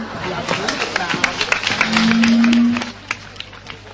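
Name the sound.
audience applause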